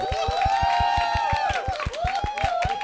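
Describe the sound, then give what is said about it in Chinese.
A loud crowd screams and cheers with sustained high-pitched voices, backed by fast, steady rhythmic clapping throughout the whole stretch, welcoming a guest on the Xifan Radio comedy show. “史上尖叫声最激烈的一 你 次。”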